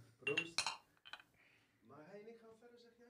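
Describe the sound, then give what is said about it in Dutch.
Glasses are clinked in a toast: a couple of bright glassy clinks ring out in quick succession, followed by a short tap, then a man's voice speaking briefly afterward. “Ik ga, ik ga proeven. Proost jongens, proost.”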